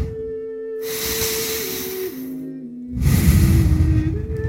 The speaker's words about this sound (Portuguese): Inspire profundamente e traga a atenção para a sua respiração.